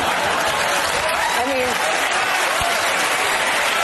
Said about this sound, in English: There you have the clapping seals and the MSLSD audience.